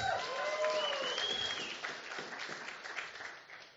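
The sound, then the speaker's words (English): A church audience breaks into sustained, dense applause for Jesus during a morning service, with a few high whoops or whistles early on, the clapping continuing steadily and easing slightly toward the end. “One church, can we give it up for Jesus this morning?”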